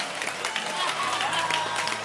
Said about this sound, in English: Stand up and clap your hands. Clap, clap, clap, clap. And smile.